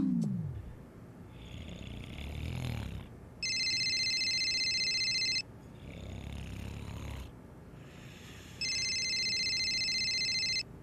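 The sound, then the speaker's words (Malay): A telephone rings at two in the morning in two long electronic bursts separated by a pause, loud, while someone snores heavily between the rings. “jawab telefon tu.”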